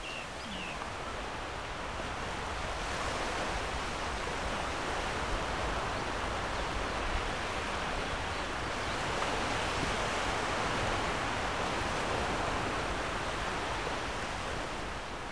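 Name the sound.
sea waves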